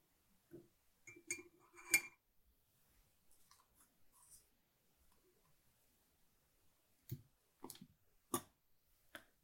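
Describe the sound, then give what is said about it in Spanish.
Light metallic clinks of a spoon against a container as two spoonfuls are added to water, a quick cluster of taps followed after a pause by a few more sharp ones, quiet with no voices. “Así que voy a echar una cucharita y dos cucharitas al agua.”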